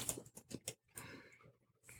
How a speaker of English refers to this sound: So Scott's typing into the window, make us a scary story.